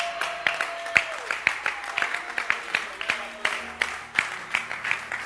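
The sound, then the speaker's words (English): An audience claps hands together in a steady, rhythmic beat, roughly two claps per second, lively, with faint sustained musical tones lingering underneath. “Clap your hands.”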